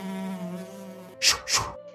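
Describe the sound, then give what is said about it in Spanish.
Flies buzz steadily in a thin, droning hum, then two quick whooshing swipes shoo them away as the buzzing carries on faintly. “Y también solía espantarle las moscas.”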